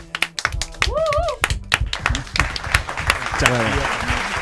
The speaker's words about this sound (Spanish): Un fuerte aplauso para los chicos.